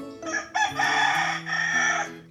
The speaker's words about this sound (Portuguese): O galo cantou. Ele veio avisar. Está na hora da leitura.